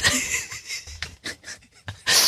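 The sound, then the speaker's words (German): A voice imitates blowing wind as a sound effect while a poem is read aloud, with breathy, hissing exhales rising and falling in several bursts and ending in a louder, sustained whoosh. “Der Wind bläst.”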